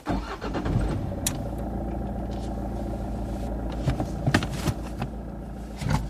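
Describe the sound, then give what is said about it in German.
A borrowed car's engine cranks and turns over, then settles into a steady low rumble with a few sharp clicks and knocks along the way, fairly loud with no voices. “Beide verlassen das Haus und steigen in das geliehene Auto ein.”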